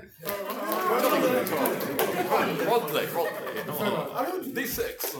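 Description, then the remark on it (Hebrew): A small studio audience murmurs approval on request, many overlapping voices saying things like "jolly good" and "well good", forming a steady hubbub with scattered chuckles, sustained for several seconds before easing off. “תעשו מחיאות כפיים נורא, נורא עדינות, אבל כן. אבל, תמלמלו אותי פעם, או, ג'ולי גוד, או, וול גוד”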